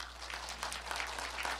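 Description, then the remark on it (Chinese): A church audience clapping their hands together to give glory to God, a dense, steady patter of many overlapping claps with no individual beats standing out, fairly quiet throughout and with no voices on top. “拍手把荣耀归给主。”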